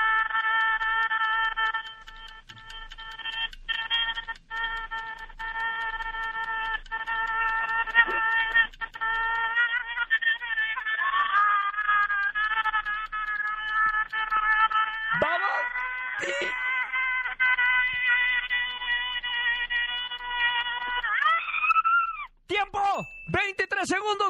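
A woman screams continuously at a high, strained pitch, holding one long wavering cry for over twenty seconds before it breaks into a few short bursts at the end.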